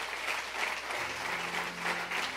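An audience claps steadily for a couple of seconds, giving an applause to the Lord, a dense, continuous patter of many hands with a faint low hum running underneath.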